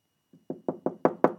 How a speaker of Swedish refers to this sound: Det var då det knackade på dörren. Den där uråldriga nitade dörren av ek bortom vilken låg endast avgrunden av vita moln.